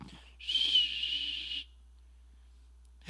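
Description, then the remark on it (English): A person whistles in imitation of cold winter wind through a crack: a single sustained breathy whistle, about a second long, holds a steady high pitch, then stops abruptly into silence. No one speaks. “and every little crack that wind blows in, and you feel that poof of cold air.”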